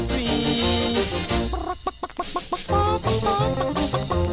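Hen clucking in quick, repeated bursts over a busy, bouncy musical backing in a song about a dancing hen, with a flurry of short clucks in the middle. Loud.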